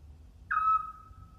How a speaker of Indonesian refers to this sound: Malam itu terasa sunyi dan hening sekali. Suara jangkrik dan burung-burung malam sesekali juga terdengar.